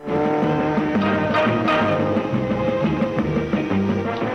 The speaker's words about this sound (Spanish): un dibujo animado que nosotros veíamos mucho de chicos que creo yo fue uno de los primeros animes que pudimos ver por estos lares y que fue Meteoro. Así que escuchamos la música de Meteoro